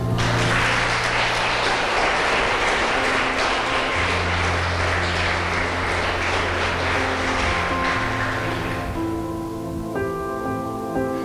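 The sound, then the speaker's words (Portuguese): A church crowd claps loudly and steadily for several seconds to applaud God, over sustained keyboard chords, then the applause thins out, leaving the held notes ringing alone at the end. “Você perdeu a chance de aplaudir a Deus, irmão.”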